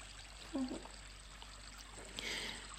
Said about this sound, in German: Und es ist sogar das Wasser vom Brunnen zu hören.